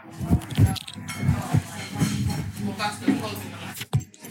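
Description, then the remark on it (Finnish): A drink can cracks open near the end with a short, feeble fizz after a stretch of murmured talk and handling noise. “Kokeillaan, avataanpa tämä, kuunnellaan miten aivastaa.”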